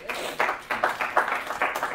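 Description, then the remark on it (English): An audience claps for a man at the speaker's urging, in a steady, rhythmic pattern, the bursts of applause arriving about three times a second at moderate volume, with a murmur of voices faintly underneath. “All right, let's clap for him.”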